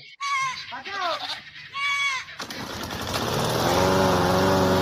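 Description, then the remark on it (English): Goats in a played video bleat several times in quick, wavering cries, followed by a loud, steady engine drone like a lawn mower that grows and fills the rest. “play a video with some goats.”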